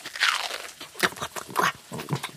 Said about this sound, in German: Da mm. kaut sich etwas schwer. Und mundet. Nun ja, eigen.